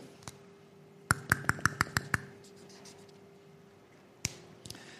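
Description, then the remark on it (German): A quick burst of sharp pen or pencil strokes on paper as a speaker writes down the idea that this future is freedom: about seven scratchy ticks in a row, then a pause and a few more faint scribbles, over a low steady hum. “So schreibe ich es jetzt mal noch hier hin und dann lese ich euch diese letzte Passage nochmal vor.”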